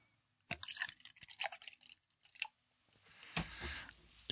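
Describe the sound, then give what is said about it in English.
Beer pours into a glass: a few soft clinks and drips, then a steady, fizzy rush of liquid with foaming hiss. Quiet and close, with no talking. “Pouring it into my glass.”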